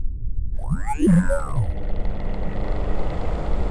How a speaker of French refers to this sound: Commençons notre ascension gonflement du ballon extérieur.